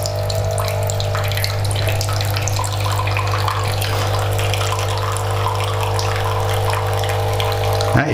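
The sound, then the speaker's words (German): A steady stream of liquid pours into a cup over a constant low mechanical hum, running evenly for several seconds before stopping abruptly at the end. No one speaks. “hört das? Die Tasse läuft voll.”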